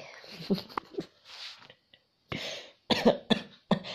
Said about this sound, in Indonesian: kan beneran batuk